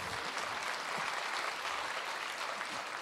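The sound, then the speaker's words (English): A crowd applauds steadily, a dense wash of many hands clapping at an even, moderate loudness for the full few seconds, with no voices rising above it. “So, I mean, this is a, you can applaud that.”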